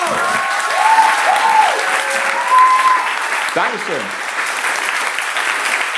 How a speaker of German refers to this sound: Und jetzt hört nicht auf zu klatschen, denn jetzt kommt mein heterosexueller Lebenspartner und Lebemann,